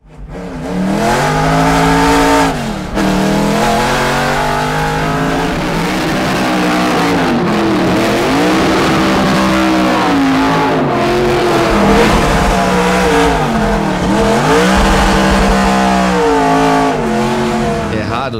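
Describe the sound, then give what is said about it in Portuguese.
A Chevrolet 302 (DZ302) American V8 engine revs hard and high, its loud roar climbing and falling in repeated sweeps with sharp gear-change dips, sustained for the whole stretch without a break. “a gente escutar um V8 americano girar aí tão alto, né, cara?”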